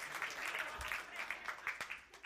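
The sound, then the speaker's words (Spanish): An audience applauds with many overlapping claps forming a steady, crackling wash at moderate loudness, a few sharper individual claps popping out near the end. “Ah, un aplauso.”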